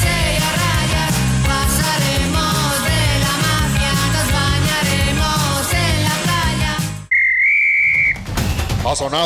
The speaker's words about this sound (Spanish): el pitazo final de este podcast.